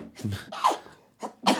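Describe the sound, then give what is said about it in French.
A sharp sneeze bursts out after a quick breathy intake, followed a moment later by a couple of shorter, explosive bursts; no talking. “À tes souhaits. Merci.”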